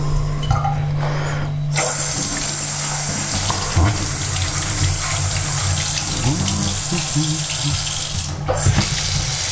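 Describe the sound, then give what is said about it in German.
A tap runs steadily into a sink, left running so the water gets colder, a loud, continuous hiss of flowing water, with a brief pause near the start and some faint clattering underneath. “Lass mal laufen, das Ding hier. Kälter wird hier.”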